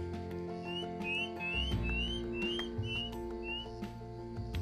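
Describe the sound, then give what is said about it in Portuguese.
Several birds sing at once, sending out a quick series of short, bright rising chirps and whistles over a steady, humming tonal backdrop. Nobody speaks. “a sinfonia desses pássaros”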